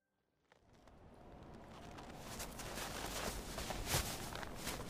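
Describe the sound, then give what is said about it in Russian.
Footsteps of a person walking in a forest near a home, crunching through snow, a steady run of gritty, crackling steps that starts after a brief silence and grows louder. No one speaks. “Здесь солнышко так светит, и снег лежит, и, может, слышишь, как хрустит.”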